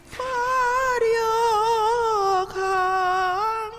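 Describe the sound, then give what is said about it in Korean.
An elderly Korean independence patriot sings the Korean national anthem (Aegukga) slowly and alone, holding long, wavering notes with heavy vibrato and brief breaths between phrases, fairly loud. “오이옥 애국지사 애국가가 흘러나가고 있습니다”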